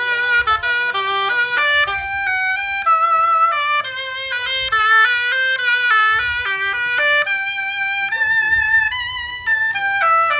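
An oboe, played live into a microphone, plays the show's jingle: a lively melody of short, quick notes that step up and down, with soft low thumps underneath and no talking.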